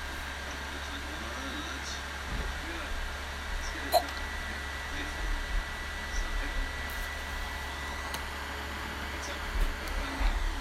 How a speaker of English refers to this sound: The loud humming noise is from the PlayStation. Can't do anything about that one, it just overheats sometimes.